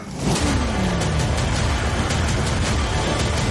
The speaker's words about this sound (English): LFE Rumble.